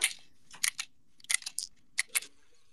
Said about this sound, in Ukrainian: У нас там щось клацає. Це я розряджаю свій новий майбутній магазин.